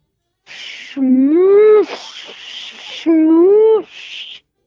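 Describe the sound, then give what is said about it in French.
Two loud, drawn-out moos from cows roaming loose on the streets and roads, each rising and sagging in pitch, separated by bursts of hissing, rushing noise, with no one talking. “les vaches sont en liberté sur les rues, sur les routes.”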